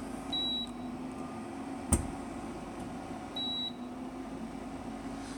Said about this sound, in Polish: ale kuchenka przez cały czas piszczy, ponieważ ty widzi garnka na sobie i nie będzie grzać.